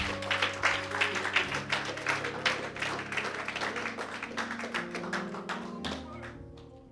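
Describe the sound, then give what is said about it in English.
An audience claps their hands in praise to the Lord, a dense, steady wash of clapping over sustained keyboard chords, tapering off slightly near the end. “Come on and give the Lord a hand clap of praise.”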